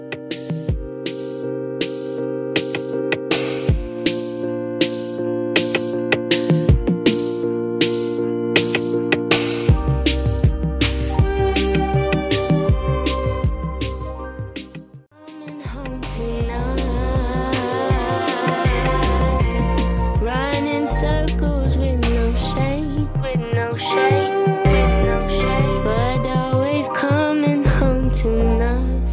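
A pop song plays loud and close with a steady beat and layered instruments, briefly thinning out near the middle before the full arrangement returns. No one talks over it.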